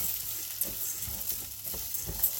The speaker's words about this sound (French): Du coup, là, j'ai mis un fond d'huile dans ma grande casserole et je mets l'échalote et je vais verser le riz. On fait toujours revenir le, riz pour, euh, pour un risotto pour qu'il devienne un peu transparent, il absorbera mieux l'eau.